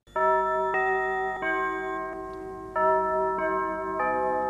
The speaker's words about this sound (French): Oui, c'est un chef d'orchestre de jazz, …, qui compose le carillon d'Europe numéro 1 en 1955. Son orchestre participait aussi à la célèbre émission d'Europe 1 Musicorama. Et voici donc ce tout premier carillon.